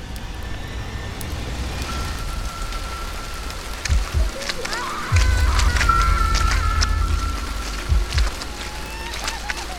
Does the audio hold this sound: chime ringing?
no